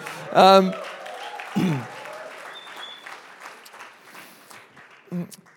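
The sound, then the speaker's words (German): A church audience applauds the production team with a dense, steady patter of clapping that runs the whole way through, punctuated by a few louder bursts and brief voices or shouts mixed in. “ein Applaus fürs Production-Team, okay.”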